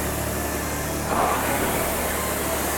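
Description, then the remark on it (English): A rowing machine flywheel whirs in a steady, airy rush during a workout, swelling slightly louder partway through as the rower steps up intensity and holding there, with no voices. “Flywheel will grow a little louder.”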